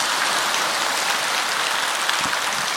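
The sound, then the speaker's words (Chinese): Steady, dense applause from the audience at a Buddhist dharma talk, a continuous hiss of many overlapping hand claps holding at an even level throughout with no voices over it. “就冲台长给你们讲佛法讲的这么生动，你们也应该好好的鼓掌。”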